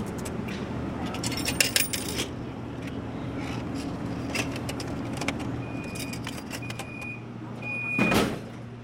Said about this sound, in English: So here is our ticket vending machine, and um, what we will probably want to do with you today is do a mm-hmm. round trip. And then the ticket will kick out along with your change.